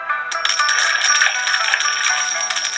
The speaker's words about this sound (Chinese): 那天夜里，年兽溜进了屋内，将手伸向孩子时，不小心震动了那个红色袋子，里头的钱币铿锵作响。